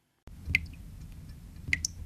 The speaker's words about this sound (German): Es ist das Ritual, das die Absinth-Fans fasziniert. Aus einem dekorativen Tischbrunnen kommt kaltes Wasser aus winzig kleinen Wasserhähnen. Durch ein Stück Zucker auf einem Löffel tropft das Wasser ins Glas und vermischt sich dort mit dem Absinth.